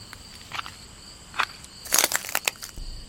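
Brittle crunching of glass being stepped on in a forest comes in a few scattered crackles and then a denser burst of grinding crunches, over a faint steady hum of insects.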